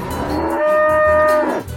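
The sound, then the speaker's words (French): A cow sprawled with legs apart on the hood of a speeding Bugatti moos once, a long, loud bellow with a steady harmonic tone that swells in the middle and fades out, heard alone without any talking. “Oui, mais vous y verriez beaucoup mieux sans cette vache”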